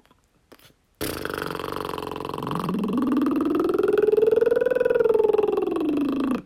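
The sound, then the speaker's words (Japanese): A lip roll vocal warm-up from voice training: lips buzz in a continuous fluttering drone for about five seconds, stepping through a musical scale, the voiced pitch sliding up, holding, then gliding back down. No speech accompanies it. “唇をうーってやって震わせながら音を出すんですね。”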